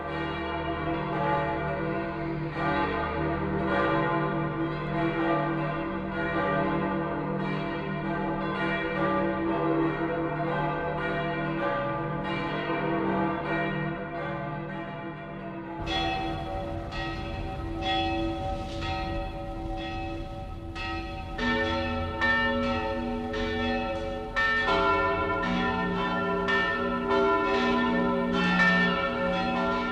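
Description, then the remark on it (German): Large church bells of St. Peter's in Rome peal continuously and loudly, their deep overlapping strikes ringing out in a rich, sustained wash; partway through, the tone shifts as brighter, higher bells join the ringing. “Über alle Länder der Christenheit klingt der Ruf der Petersglocken in Rom.”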